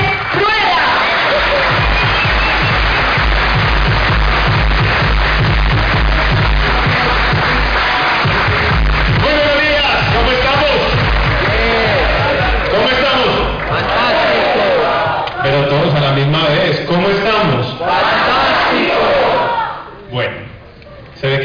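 Loud, sustained applause and cheering from a crowd, a dense wash of clapping and shouts over a steady thumping beat, fading out near the end.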